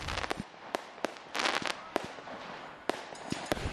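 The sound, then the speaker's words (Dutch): Fireworks, including Bengal fire, bang from a sports park as a match is about to begin: sharp cracks and pops of varying loudness in quick, irregular succession, echoing, with no talking. “Niet alleen Bengaals vuurwerk, maar ook gewoon vuurwerk. Het knalt vanaf het sportpark.”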